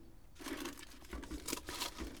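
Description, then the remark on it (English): Old plastic plant pots being handled in the corner of a small garden shed, a steady crinkling, rustling clatter with a couple of sharper crackling bursts toward the end, fairly quiet and with no voices. “These are old plastic pots.”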